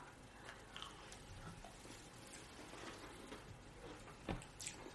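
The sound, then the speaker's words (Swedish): Crisp crunching of someone sitting at a table chewing gingerbread cookies: scattered sharp bites and crackles over a soft, steady background hiss, with one louder crunch near the end and no talking. “Mm, nu sitter jag här och knaprar pepparkakor allihop också som ni hör.”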